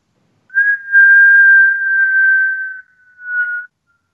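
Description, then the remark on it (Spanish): A thin, steady whistle of wind holds one high pitch for about three seconds, fades briefly, then swells once more before cutting off. No voices. “silbaba y se subía a la montaña más alto allá arriba a escuchar ese maravilloso sonido”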